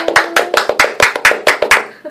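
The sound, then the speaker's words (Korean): A quick burst of hand clapping at the close of the radio show Cocoa Talk: about a dozen sharp, bright claps in a fast, steady rhythm, fairly loud, with a faint voice underneath. “박수!”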